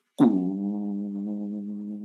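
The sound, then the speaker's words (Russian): A loud, steady low hum from high-voltage power lines starts abruptly and drones on evenly with a buzzy, tonal quality. No voices are present. “Если вы подойдете к высоковольтной линии, где эта трасса -то стоит, и высоковольтные вот эти провода идут, то они сдают гул, такой треск.”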